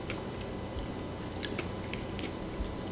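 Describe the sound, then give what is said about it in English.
Steady chewing with scattered crisp crunches as someone bites through a soft cupcake topped with hard, crunchy sugary round sprinkles and maple-leaf decorations, repeated bites spaced irregularly over a low background hum. “it's got sugar stuff on it. Okay. And it's hard and it's crunchy.”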